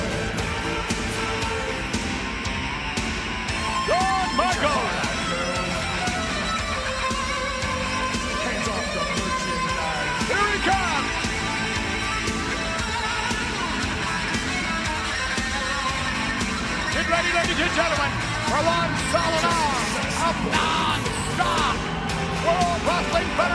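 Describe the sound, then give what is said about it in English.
A capacity arena crowd at a Shawn Michaels match roars continuously, a dense wash of cheering and scattered yells rising and falling in intensity, with no single voice standing out from the mass. “Listen to this capacity crowd.”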